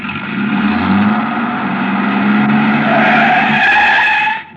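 A man starts a truck's engine, which roars loudly while its tires skid and squeal in a long, continuous screech, the pitch sliding upward before cutting off abruptly at the end. No voices.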